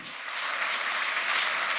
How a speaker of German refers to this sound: Der Applaus war Heribert Prantl sicher, denn er sprach im Herbst 2019 zu lauter Insidern. Prantl hielt die Eröffnungsrede eines Kongresses, den der Deutsche Berufsverband der Datenschutzbeauftragten jedes Jahr abhält.